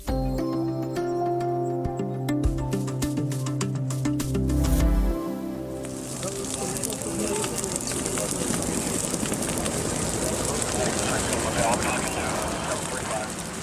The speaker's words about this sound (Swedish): Det otäcka ljudet av bränderna i västra USA.